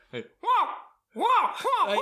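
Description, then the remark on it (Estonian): A person squeals in high, wavering pitch, imitating a raccoon's squeaks: a short chirp, then a longer rising-falling squeal, then a run of bouncy squeaks, fairly loud. “ma olen kõrvalosas pesukaru. ma nüüd ei tea, mis häält pesukaru teeb, aga ma juba tean, ehk siis.”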